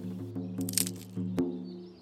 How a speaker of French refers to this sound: Une branche craqua. C'était peut-être moi troublé, ou un oiseau qui nichait dans l'arbre sous lequel je m'étais caché.